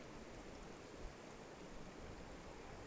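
Water in a stream flows steadily with a soft, continuous rushing hiss, unbroken for the whole few seconds. No voices, and no distinct splashes stand out.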